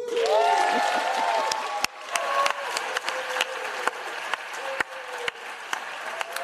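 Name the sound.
applause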